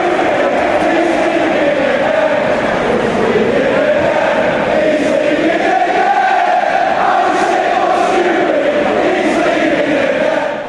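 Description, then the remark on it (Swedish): A large crowd of Stoke fans chants a taunting terrace song at their former manager Nathan Jones, in unison, a loud, sustained mass of voices rising and falling in a steady sung melody with no break. “Och det är en otroligt bra ramsa.”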